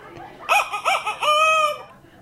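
A single rooster crows loudly, a few choppy rising notes followed by a long drawn-out final call, with no other sounds around it.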